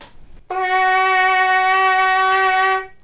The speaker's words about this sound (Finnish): Ja sitten me laitetaan siihen päälle tämä suukappale, tämmöinen trumpetista irtoava osa. Ja sen voisi ajatella vähän niin kuin tiivistävän tota värähtelyä, tekevän, tekevän siitä niin kuin selkeämmän. Ja siitä tulee tämän kuulonen.